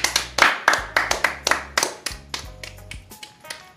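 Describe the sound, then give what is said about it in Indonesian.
A quick series of sharp hand claps, about a dozen in an uneven rhythm, fairly loud at first and softening toward the end, with faint low tones underneath. “Tepuk tangan bagi mereka.”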